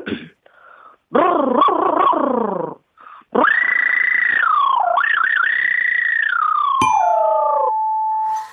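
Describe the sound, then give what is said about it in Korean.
A voice imitates a drill tightening a screw, not one boring through a concrete wall: a short buzzy, wavering burst, then a long high whine that wobbles in pitch and settles into a steady lower hum before stopping. “자, 벽 뚫는, 아, 콘크리트 수, 뚫는 소리가 아니고 나사 조이는 드립니다.”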